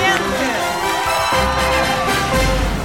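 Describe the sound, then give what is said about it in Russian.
A crowd applauds loudly and steadily for about three seconds, a dense wash of clapping mixed with cheering and a few raised voices. “конечно, наши аплодисменты.”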